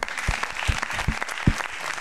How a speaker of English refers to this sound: And so we can all give them a round of applause.